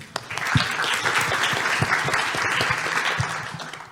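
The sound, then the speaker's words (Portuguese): A crowd applauds with steady, dense clapping that holds at an even, fairly loud level for the whole stretch, with no voices breaking through. “Maravilhoso. Palmas.”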